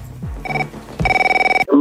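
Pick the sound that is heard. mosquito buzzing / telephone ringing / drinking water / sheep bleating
telephone ringing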